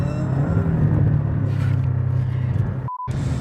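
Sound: car driving on road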